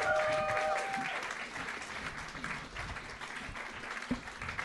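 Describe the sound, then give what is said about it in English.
A crowd applauds steadily for the final guests from Sans Pants Radio, a dense wash of many hands clapping at even loudness for several seconds, with a brief tonal whistle-like note near the start. “And keep that applause going for our final guest from Sans Pants Radio.”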